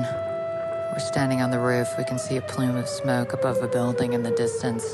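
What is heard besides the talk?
loud siren wailing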